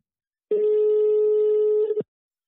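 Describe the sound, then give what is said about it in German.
A single steady telephone ringback tone as a phone call is placed, a clear mid-pitched beep lasting about a second and a half, then silence. Fairly loud, with no voices. “Deswegen rufen wir ihn gleich mal an und hacken mal so nach.”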